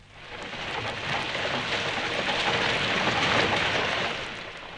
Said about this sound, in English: Sometimes you have rain. It rains like this.